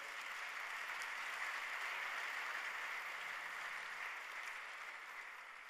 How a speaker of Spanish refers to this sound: Sí, pues un aplauso.